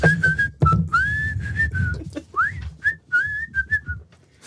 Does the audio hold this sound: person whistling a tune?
yes